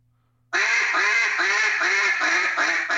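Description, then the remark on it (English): A duck call sounds a rapid cadence of about seven loud, nasal quacks imitating a mallard hen. It begins after a brief silence, with steady, evenly spaced notes and no talking. “That first cadence sounds so ducky, like just like a mallard hen.”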